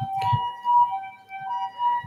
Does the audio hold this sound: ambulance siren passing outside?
yes